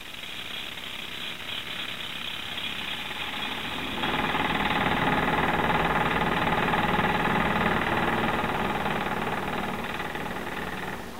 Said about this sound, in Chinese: 拖拉机和铆钉机。